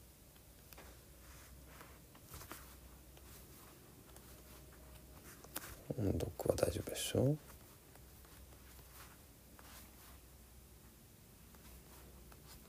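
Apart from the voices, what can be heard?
flipping through book pages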